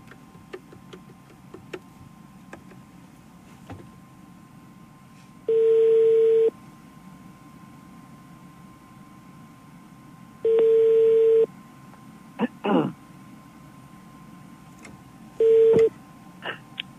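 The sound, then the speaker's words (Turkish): A phone call rings out unanswered because the called phone had locked up: three evenly spaced ringback tones, each about a second long, sound over a faint hiss, with a few small clicks between them. “Ama Sami Bey biz ulaşamıyoruz efendim. Açmıyorsunuz telefonu.”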